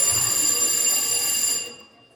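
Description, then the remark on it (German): A theater bell rings in one continuous, shrill electric peal lasting about a second and a half, loud and steady, then cuts off and fades away. “Ah, das ist die Theaterklingel, wird mir gerade gesagt.”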